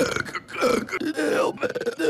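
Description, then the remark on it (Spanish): A person voices a long, drawn-out imitation of the character Rick from Rick and Morty burping, a croaky, gurgling belch sound stretched over about two seconds with wavering pitch, fairly loud, with no other talking. “Ajá, o que el Rick pase eructando, pase vomitando y con la baba todo el tiempo.”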